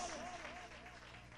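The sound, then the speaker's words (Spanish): A church audience claps together for God in a dense, steady burst of applause, with a faint wavering musical tone drifting underneath. “Hermano, Dios hizo al hombre al y a la mujer para que disfruten las bendiciones de Dios y déle palmas a Dios si usted ha recibido esa bendición.”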